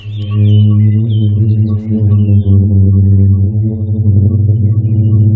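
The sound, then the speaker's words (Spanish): A booming sand dune in the Sahara desert gives off a deep, steady droning hum, loud and continuous with rich overtones, swelling slightly in roughness toward the end, with no voices present. “Este sonido que están escuchando ha sido grabado en una duna del Sahara.”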